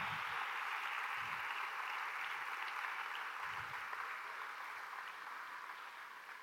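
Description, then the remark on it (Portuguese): An audience applauds steadily for the volunteers who served, a dense wash of many hands clapping at an even level that tapers slightly near the end, with no speech over it. “Vocês acham que elas merecem um aplauso?”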